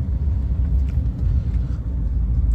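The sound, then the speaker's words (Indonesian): A steady, loud low rumble fills the inside of a moving car, the engine and road drone holding constant throughout with no voices over it. “Dengeran gak deh gue ngerekam di mobil nih nggak tahu nih suaranya gimana ya udahlah coba-coba sekali-sekali”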